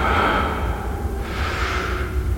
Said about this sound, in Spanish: iniciaba el vídeo con una inquietante respiración